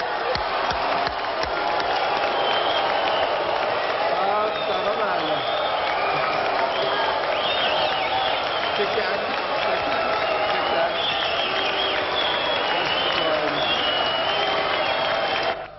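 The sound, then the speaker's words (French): A large audience at a film award ceremony reacts loudly and continuously as Maurice Pialat receives the Palme d'Or for Sous le soleil de Satan, with sustained clapping mixed with shouts, whistles and crowd voices for the whole stretch. “Et on va faire un beau coucou à Maurice Piala quand il recevait sa palme d'or pour Le Soleil de Satan.”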